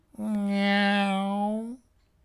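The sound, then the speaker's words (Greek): A long, drawn-out meow voiced by a person, lazy and steady in pitch, lasting about a second and a half and lifting slightly at the very end. “Η γάτα χασμουρήθηκε, τεντώθηκε, απλώθηκε και ύστερα νιαούρισε βαριεστημένα.”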